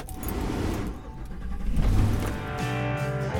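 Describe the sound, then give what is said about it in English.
A 16-foot (5-metre) moving truck, loaded with furniture such as a couch and bed, drives off around midday, its engine rumbling low and steady, swelling in the middle and then settling into a droning hum as it shifts gear. No one speaks. “Wir steigen ein und fahren los.”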